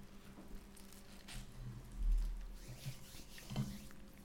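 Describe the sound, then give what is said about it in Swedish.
Someone bites into and chews Neapolitan pizza topped with pecorino, mozzarella and salami: a few soft, wet, squishy chewing bursts spaced irregularly over a quiet background, with no talking. “Så att vi kan väl prova en, en tugga av den här”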